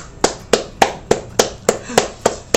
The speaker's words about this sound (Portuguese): Com vocês, o artista vai dizer para vocês a gestão de tempo. Uma salva de palmas.